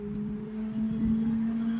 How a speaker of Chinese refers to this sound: 摩托过去了啊！